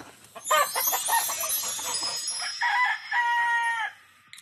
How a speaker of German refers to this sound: Hör mal, 1, 2, 3, Kikeriki.